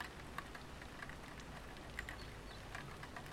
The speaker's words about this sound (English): you're looking out the window into the rain, and you see the brothers.